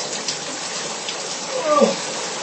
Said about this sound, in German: in dem Badezimmer, in dem ich mich gerade befinde und mich hier in der Badewanne mit Duschvorhang äh, Dusche